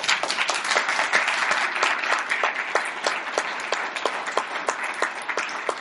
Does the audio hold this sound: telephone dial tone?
no